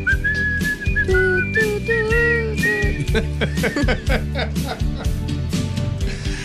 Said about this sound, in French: Tout le monde, on siffle.